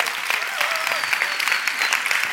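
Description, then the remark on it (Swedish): An audience applauds steadily, a dense, even wash of many hands clapping at a fairly loud, constant level, with no voices standing out above it. “Eh, ja, men det kan ge dig en applåd.”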